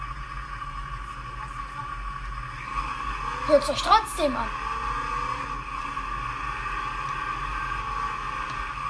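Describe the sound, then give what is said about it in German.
Steady engine drone and road rumble of a bus on the move, on a 130-kilometre trip to Bonn, fill the whole recording, with a brief stretch of talking partway through. “Wir fahren 130 Kilometer nach Bonn.”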